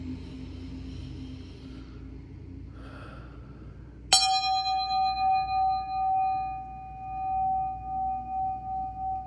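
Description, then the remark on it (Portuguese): A single small bell is struck once, giving a bright metallic ding that rings on with a long, shimmering sustain and slow beating, fading gradually over a faint low background rumble. “fecha os olhos e vamos para o nosso sininho.”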